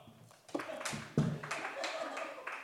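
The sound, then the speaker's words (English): A show audience breaks into scattered clapping when asked to clap if they are from outside the United States, a dense patter of overlapping hand claps with a few sharper bursts standing out, steady in loudness for a couple of seconds. “Clap if you're from anywhere else in the world.”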